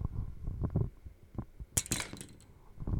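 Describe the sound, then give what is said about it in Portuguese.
A spring-mounted toy frog being flicked by hand, recorded with the microphone placed near it: soft low thuds and wobbly springy rattles, with one sharper, brighter clattering burst midway, fairly quiet overall and with no talking. “boing, boing pros lados, por causa da mola. É isso que acontece com o meu sapinho”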